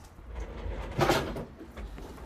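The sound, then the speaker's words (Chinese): A drawer holding a bell slides open in one short, scraping burst midway through, briefly louder than the low, steady rumble that runs underneath the whole moment. No one speaks. “你抽屉是不是有个铃铛？”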